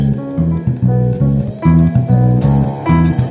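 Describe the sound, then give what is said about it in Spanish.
A loud, bouncy reggaeton beat plays with a steady syncopated kick-and-snare pattern under a repeating synth bassline, no voices, just the groove looping for a few bars. “Y cuando uno escucha eso, yo no sé cómo que el perreo empieza.”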